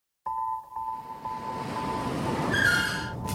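A large metal door rolls along its track with a steady grinding rumble and a thin ringing tone, building to a high metallic squeal near the end. No one speaks.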